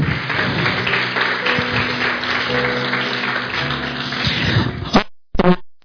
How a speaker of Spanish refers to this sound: Vamos, aplauda bien fuerte, por favor.